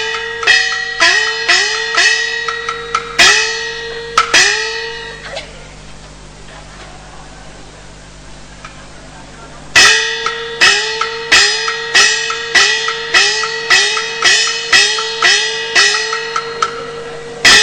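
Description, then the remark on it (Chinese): A bright metal gong or bell is struck in a quick, steady rhythm, each hit ringing briefly. A quieter pause follows, then the rapid ringing strikes resume for several more seconds. “忽听铜棒声声响，急急忙忙来上来。”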